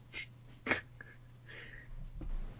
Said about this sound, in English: New entry. I suspect gagging sounds, coughing. I, I think it's been a week since I ate from the carcass. I didn't get any immediate indigestion or signs of food poisoning, but since yesterday, I felt very ill.